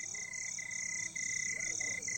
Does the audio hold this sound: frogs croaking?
yes